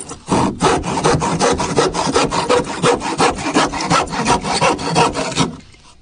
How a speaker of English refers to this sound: Here's me sawing a board, two by four.